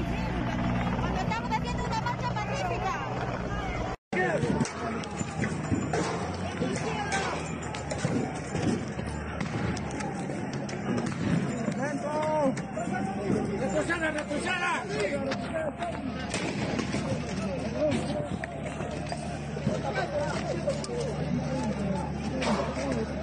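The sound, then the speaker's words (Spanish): A helicopter drones steadily overhead during a street protest, dropping tear gas canisters, its low rumble continuous and loud beneath a chaotic crowd, with people shouting and chattering and a brief cut early on. “Así es como están tirando bombas lacrimógenas desde el helicóptero.”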